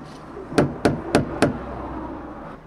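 Four firm, evenly spaced knocks on a door, fairly loud, sounding in a quick steady rhythm over a quiet background with no talking.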